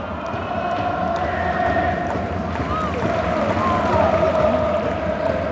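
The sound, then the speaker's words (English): A large stadium crowd of football supporters at a J League match chants and sings together in a loud, continuous roar, swinging flags above their heads, sustained voices blending into a dense wall of sound with no pauses. “Supporters so far have been going 90 plus.”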